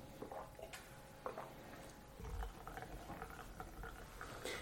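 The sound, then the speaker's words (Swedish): Baimodan (Bai Mu Dan), a stronger white tea with leaf buds and some leaves, being poured into cups, a soft, uneven trickle and splash of liquid with faint clinks and a brief low thump midway, no voices. “Ja, det vi håller på att häller upp åt oss nu det är Paimotan eller Baimodan.”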